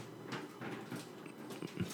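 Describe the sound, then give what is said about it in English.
A female dog pulls up and chews plastic, producing a quiet, irregular series of crinkling, crackling bursts with no voices present. “She's pulling up the plastic. This dog is crazy, man.”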